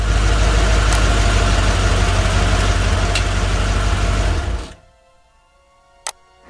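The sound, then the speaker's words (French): A car engine idles steadily with a loud low rumble for several seconds as the car is parked at the house of Ougan, a marabout, then cuts off abruptly, leaving near silence broken by a single sharp click. “Je vais bien garer la voiture.”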